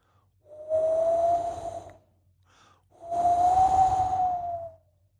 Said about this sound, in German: Es ist immer noch ganz früh, dunkel und ungemütlich. Man hört den kalten Wind und ein bisschen Schneeregen.